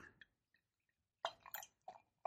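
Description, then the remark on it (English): A vintage beer pours into a glass in short, uneven glugs and splashes, a few quiet clicks first, then several bursts of gurgling liquid, with no one talking. “So um, and one of well, I'll just start pouring it.”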